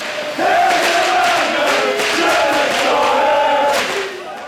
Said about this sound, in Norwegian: Det er en eh, regntung desemberkveld, men eh, på stadion der står applausen i taket, og det er tent en ny gnist etter en lang og ganske kjedelig høstsesong. Det stemmer. Det er 4. desember 2013. Stedet er Brann stadion.